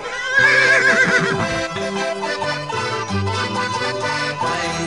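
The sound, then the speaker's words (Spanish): A white horse, ridden by the apostle Santiago, whinnies loudly near the start, a wavering high neigh over a bed of sustained orchestral music that continues steadily after the call fades. “Sube pronto a mi caballo.”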